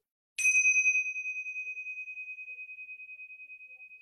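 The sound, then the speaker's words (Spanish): A single meditation bell is struck once, ringing out with a clear, bright tone that sustains and slowly fades with a gentle pulsing shimmer. No voices accompany it. “Y cuando vuelvas a sentir la campana, vamos a permanecer en esta experiencia que estamos sintiendo ahora.”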